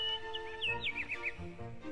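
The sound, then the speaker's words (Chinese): Skylarks singing in quick, high, warbling chirps and rising-falling trills, fairly clear and continuous over a steady low, humming background, with no one speaking. “现在让我们坐在阳光下欣赏小鸟的歌声吧。”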